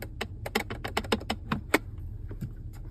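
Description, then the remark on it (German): A loose, wobbly plastic button for opening the armrest centre console in an iX car, clicked over and over: about a dozen sharp, rattly clicks in a quick, uneven burst, fairly loud, with no talking. “Und der Knopf oder die Taste, um dieses Ding zu öffnen, der klang so.”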